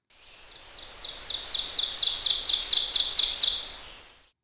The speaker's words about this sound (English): Amazing nest builder number four, the ovenbird.